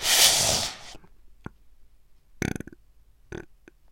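A short burp rumbles out, followed moments later by a smaller second one. A burst of breathy noise and a faint click come before it, with no talking.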